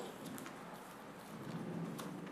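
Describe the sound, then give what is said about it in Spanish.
A steady, soft hiss of falling rain fills the background, continuous and even with no distinct drops standing out, with no one speaking. “Yo, está lloviendo, estamos atrapados aquí.”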